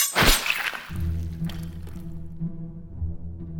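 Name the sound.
door being broken down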